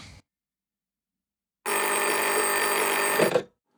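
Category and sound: household object, telephone bell ringing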